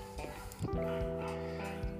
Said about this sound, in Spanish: como escucharéis, pues hay un perro de fondo, tengo las ventanas de casa cerradas, pero claro, los perritos tienen que ladrar. Mío no es, yo no tengo perros.